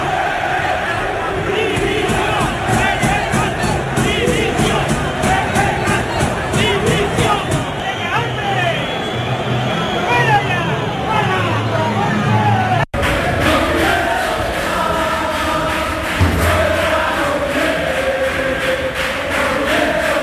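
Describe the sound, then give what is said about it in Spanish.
A large crowd of Sevilla Fútbol Club fans at the Ramón Sánchez Pizjuán stadium chants loudly and steadily in unison for Lopetegui's resignation, a dense roar of many voices filling the whole stretch, briefly cut off midway before resuming with the same rhythmic shouting. “dimisión, eran, lo acaban de escuchar, lo que gritaban a anoche los aficionados del, Sevilla Fútbol Club, Lopetegui evidentemente no va a dimitir de ningún cargo”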